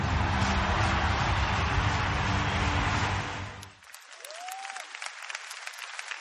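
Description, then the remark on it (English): In a TV commercial, a big NFL stadium crowd roars and cheers loudly for deaf player Derrick Coleman for about four seconds. The sound then drops to thinner crackling applause with a short, sliding whistle-like tone. No one speaks. “And now I'm here with a lot of fans in the NFL cheering me on.”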